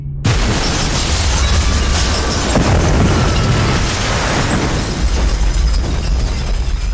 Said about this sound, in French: Le 12 mars 1993, une dizaine d'explosions secouent Bombay, la bourse, le siège de la compagnie Air India et un centre commercial sont visés.